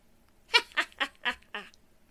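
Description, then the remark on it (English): A voice imitates a figure's cackle: five harsh, nasal bursts in quick, even succession, fairly loud, with no other talking. “the figure cackled.”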